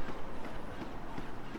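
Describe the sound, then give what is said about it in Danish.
A robot's mechanical legs thud down three stair steps in a steady, plodding rhythm, about four or five dull, moderately loud impacts over a constant background hum. “Nu går den ned med de første to ben i næste, og den forserer så tre trappetrin.”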